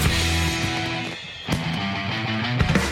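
A song with several voices singing together plays loudly and continuously over full, sustained instrumental backing, with a brief dip in intensity midway before the music swells again.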